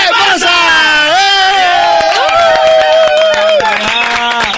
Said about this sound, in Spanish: ¿No tienen grito? ¿No tienen el grito de victoria? ¿Cuál es?